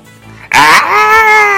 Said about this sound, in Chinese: 当他到了野兽国，野兽们发出可怕的吼声，露出可怕的牙齿。